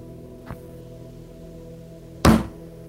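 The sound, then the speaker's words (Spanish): A soft thump, then a moment later a single loud, heavy bang of a fist pounding on a metal door, over a low, steady background hum. “Es un puño.”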